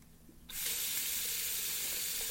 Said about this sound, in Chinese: 就是用洗手液搓手啊，洗十分钟、二十分钟，就一遍一遍一遍。而且水龙头的水不停的哗啦啦的流，我那个时候没有怎么在意。